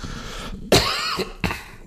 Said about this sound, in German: Ich muss mal kurz husten.